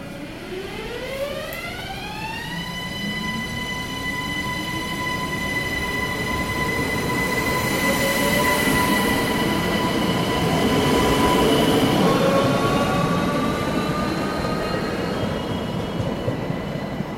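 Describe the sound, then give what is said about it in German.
A regional express train to St. Pölten Hauptbahnhof departs from platform A at 15:54, its electric motor whine climbing in pitch, then holding steady over a continuous rumble of wheels. No one speaks. “Regionalexpress nach St. Pölten Hauptbahnhof fährt ab.”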